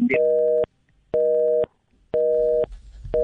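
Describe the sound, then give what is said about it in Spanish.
A cell phone busy tone repeats in steady on-off pulses, about half a second of steady electronic tone followed by equal silence, clear with no talking. “otra vez los teléfonos celulares”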